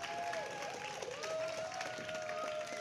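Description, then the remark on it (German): An audience applauding steadily at a live show, Dunkel, dreckig, deutlich, das Stadtratsupdate, presented by the Leipziger Internetzeitung: a dense wash of many hands clapping at once with no pauses, even in loudness, with a faint sustained tone running underneath. “E vielen Dank für diesen Applaus.”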